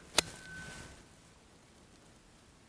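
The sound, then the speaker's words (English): A tuning fork gives a sharp metallic strike, followed by a thin, steady pure tone that rings for under a second and fades. A second brief tap comes at the very end. No talking. “So I'm going to strike it, and it's going to either vibrate like that”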